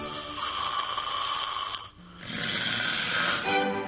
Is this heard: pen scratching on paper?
no